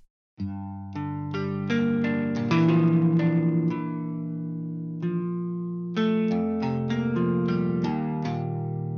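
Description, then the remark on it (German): A virtual electric guitar plugin, the Native Instruments Electric Sunburst in its melody version, plays a clean melodic phrase of plucked single notes and sustained chords, ringing out with a bit of reverb; a short pause mid-way, then a second phrase. No talking. “Und dafür habe ich mir eine Gitarre reingeladen von Native Instruments. Das ist die Electric Sunburst.”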